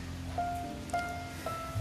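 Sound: light drizzling rain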